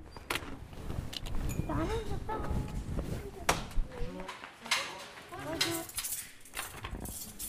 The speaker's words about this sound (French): Moi j'entends des bruits de flaques et des bruits de couverts. Des verres, des assiettes, des chaises.